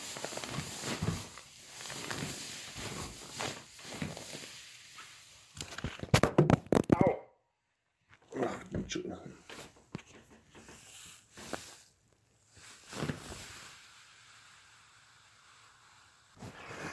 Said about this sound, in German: Das ist das Geräusch, das eine wasserfeste Matratze macht, wenn man aufsteht. Und wasserfest deshalb, naja, weil hier ja einige der Leute, die die Matratze benutzen könnten, nicht ganz auslaufsicher sind.